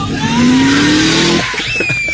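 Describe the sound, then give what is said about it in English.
A car brakes hard, its tires letting out a loud, sustained squeal for over a second before it breaks off into a rougher engine rumble. The sound fills the short clip. “Oh, stop the car! Slow down!”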